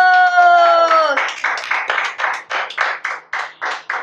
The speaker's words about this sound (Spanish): ¿Se acabó? Claro. ¡Aplausos!